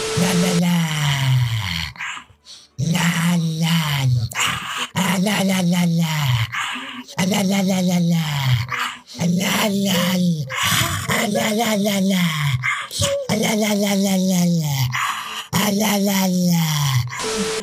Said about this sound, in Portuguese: Esse cachorro dublou o Sauron, velho.